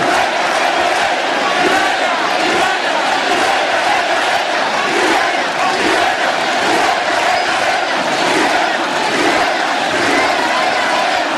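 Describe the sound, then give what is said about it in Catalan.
A large outdoor crowd in the Plaça del Blat town square in Valls roars steadily, cheering, chanting and applauding as a human tower (castell) is completed, a dense, continuous wash of voices that fills the square and echoes loudly throughout. “perquè això s'ha de viure de prop, aquests càntics habituals, aquests aplaudiments. Com ressona aquesta plaça.”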